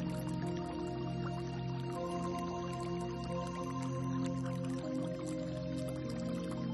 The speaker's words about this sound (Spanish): Puede ser un río, un lago, el mar, una cascada. Empieza a ser consciente del sonido del agua.